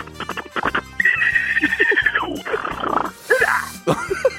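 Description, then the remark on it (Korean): In a voice-impression contest, a person imitates a zebra's call with their voice: a series of harsh, barking brays and squeals in rising and falling bursts, loud, with a few short breaths between. “얼룩말 소리 한번 내보겠습니다. 얼룩말 소리 들어볼게요.”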